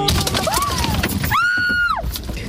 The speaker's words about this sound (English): Watch as this car is pummeled by golf ball sized hail, smashing windows for an agonizing 17 minutes. The three friends inside the vehicle, which was in Alberta, Canada, actually suffered cuts and bruises, and one ended up with a mild concussion